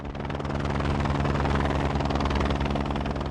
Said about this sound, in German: Anflug auf den pyramidenförmigen Gipfel des Hochvogels in den Allgäuer Alpen. Der Pilot setzt den Helikopter mit nur einer Kufe auf einer Felskante knapp unterhalb des Gipfels auf, im zerklüfteten Gelände und hält ihn in der Schwebe.